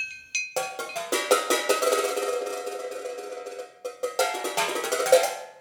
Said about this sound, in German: Gebastelt wird etwa noch an Konstruktionen, damit auch Flaschen und Büchsen zum klingenden Instrument werden.